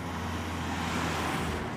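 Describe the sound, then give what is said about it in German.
The hotel's truck rumbles past, a steady, fairly loud wash of engine and road noise with low droning tones, heard on its own without voices. “Gerade der Lastwagen vom Hotel, der vorbeifährt, ja.”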